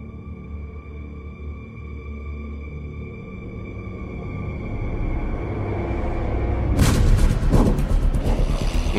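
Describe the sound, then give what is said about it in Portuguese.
A World War I Albatros DK biplane's propeller engine drones steadily, growing louder as it approaches, then roars overhead with a rough, rushing burst near the end, as it crosses the skies of the sertão of northeastern Brazil at Juazeiro do Norte. No voices. “inconfundível avião da Primeira Guerra Mundial, Albatroz DK, cruza os céus do sertão nordestino.”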